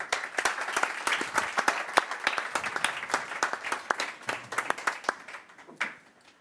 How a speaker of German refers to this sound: Und ich bitte jetzt … auf die Bühne. Applaus.